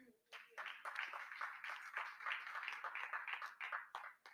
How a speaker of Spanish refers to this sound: Dele palmas al que vive.